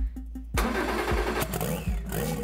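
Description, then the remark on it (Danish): A race car engine cranks briefly, then roars to life with a loud burst and rough, sputtering revs, nobody talking over it, while the car is being cleaned and made ready. “Det er lige nu, der mig og min far, vi går og, og gør ren med bilen og, og gør den klar.”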